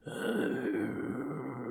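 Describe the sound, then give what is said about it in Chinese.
A deep, menacing growl from a Molossian war dog rumbles steadily for nearly two seconds, low-pitched and gravelly, holding an even loudness without a break and with no voices over it. “它是一只摩洛西战犬。摩洛西犬啊，发出令人恐惧的低吼声。”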